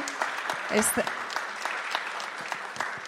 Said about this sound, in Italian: Eccoci qua. Grazie. Ecco qua, ancora un applauso.